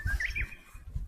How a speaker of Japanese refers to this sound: 鳥の声もチュンチュン鳴いております。